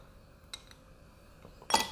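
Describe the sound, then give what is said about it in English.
A couple of light, sharp clinks, then a quick clattering rush of ice cubes tumbling into a glass as someone pours more ice into their drink, fairly bright, with no one talking. “I'm just gonna pour myself more ice in the drink because the ice I had is already melted.”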